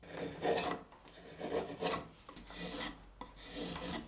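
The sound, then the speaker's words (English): A rasp scrapes across carved wood in several slow, rough strokes, each a harsh, breathy grating that rises and fades in an uneven rhythm, with no voices, as artist and sculptor Gary Anderson carves a wooden carousel horse, an exact replica of the original vintage merry-go-round horses. “He's almost completed carving a full fleet of exact replicas that are swapped out for the bulk of the season.”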